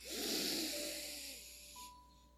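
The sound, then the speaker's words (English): A deep, airy breath in and out during a guided breathing prayer, a drawn-out hissing rush of air that gradually fades over a couple of seconds, with no talking. “Breathe in the life that you've been given, like God is breathing into your nostrils in the garden in Genesis.”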